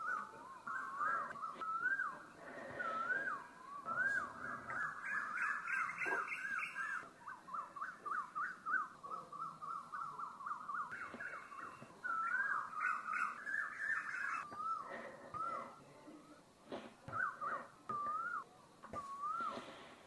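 Birds sing continuously for the whole stretch, a busy run of warbling, whistle-like notes and quick rising chirps, steady, with no voices.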